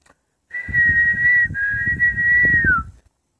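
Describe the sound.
A person whistles an imitation of birdsong: two long, steady high notes with a brief break between them, the second sliding slightly downward at the end, over faint low rumbling.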